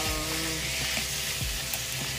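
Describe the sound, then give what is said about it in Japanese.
Steady sizzling of food being stir-fried in a hot pan after kombu dashi is added, a continuous crackling hiss with a few soft scraping stirs underneath, no voices. “昆布だしを入れてあと何で炒めようかな”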